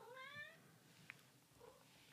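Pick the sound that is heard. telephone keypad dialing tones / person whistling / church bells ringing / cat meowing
cat meowing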